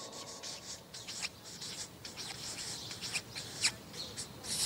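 A pen or marker draws a little line on a flip chart in a series of short, hissy strokes, some brighter and sharper than others, with no one speaking.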